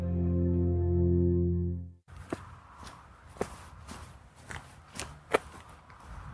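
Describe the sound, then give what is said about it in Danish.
A sustained musical chord fades out, then steady footsteps walk along Vorkærvej in Viby, Aarhus, on the way to Viby Badminton Klub, about eight crisp, evenly spaced steps over a low hiss of outdoor background noise. “Jeg går på Vorkærvej i Viby i Aarhus lige nu, og det gør jeg, fordi jeg er på vej hen til Viby Badminton Klub, som ligger lidt længere nede ad vejen.”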